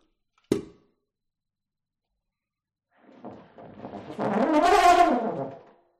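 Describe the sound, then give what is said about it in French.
A single sharp click, then after a pause a euphonium sounds one low, brassy note that swells from soft to a loud, buzzing blare over about three seconds before cutting off. “C'est un euphonium.”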